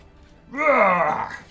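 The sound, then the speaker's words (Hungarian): A person voices a single drawn-out, growling roar in imitation of a bear, rising and then sagging over about a second, loud with no other sounds. “Ordít egy nagyot, ennél nagyobban.”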